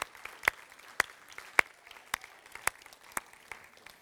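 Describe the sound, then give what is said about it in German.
An audience gives a short round of applause for a couple from the community who married the day before, a steady patter of many hands clapping, with a few sharper claps standing out through the brief burst. “Wollen wir einen kurzen Applaus?”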